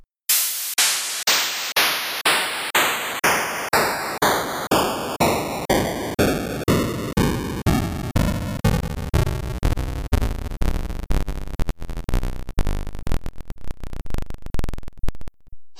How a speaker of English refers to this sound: it has 32 preset pitches. But unlike the NES, it's all just white noise. So it doesn't have the looped noise feature to make those buzzy or those kind of melodic sounds. So uh, here's what they sound like.